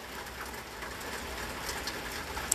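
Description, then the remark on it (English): Steady rain pours down outside a front porch on Thursday, January 23rd, 2020, a dense, even hiss with scattered patters and one sharp drip near the end, with no voices. “And I'm standing on my front porch and I'm listening to the rain come down.”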